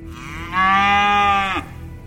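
A single loud cow moo, a sustained, steady low bellow lasting about a second with a slight downward slide at the end, with no talking.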